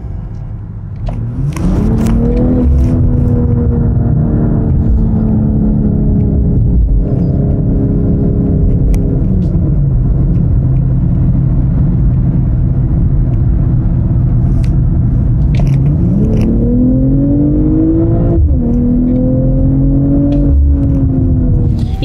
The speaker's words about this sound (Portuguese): ele já entrou diretamente no esporte plus e você sentiu que a rotação já aumentou, o barulho já aumentou, o carro está pedindo para ser acelerado e é isso que eu vou fazer, por que não? Vamos lá?